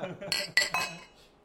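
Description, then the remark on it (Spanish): Glasses clink together in a toast, three quick, bright ringing taps, with a soft murmur underneath and the ring fading out at the end. “Eh, salud. Salud.”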